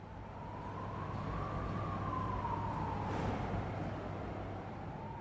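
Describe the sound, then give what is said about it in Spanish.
An ambulance siren wails in a slow rise and fall over a heavy low rumble of engines and traffic, holding steady throughout, with no one speaking; ambulances arriving after the earthquake in Lorca. “No paraban de llegar ambulancias, no paraban de llegar coches particulares con gente con la pierna rota, no paraban de llegar gente con ataques de histeria, de ansiedad.”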